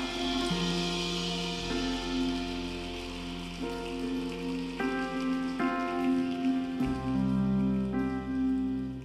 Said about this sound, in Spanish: Es más, ponte de pie y dale un fuerte aplauso al Rey de Gloria.